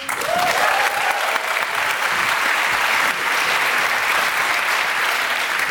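An audience claps for a partner from the drive-in cinema, steadily for several seconds, a dense, even patter of many hands with a faint rising whistle or cheer near the start.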